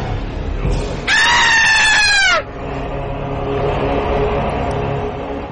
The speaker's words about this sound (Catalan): obre l'habitació i se sent un crit agut.